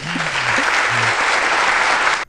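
A crowd claps steadily for a couple of seconds, dense and fairly loud, then the applause cuts off abruptly. A few faint low tones sound underneath at the start.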